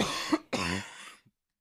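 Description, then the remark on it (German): Two harsh, barking coughs in quick succession, fairly loud, followed by a faint throaty catch and then silence. No one speaks. “Ich habe die Lautsprecher ähm, äh, laut genug gestellt, sodass ich dich höre, trotz meines bellenden Hustens.”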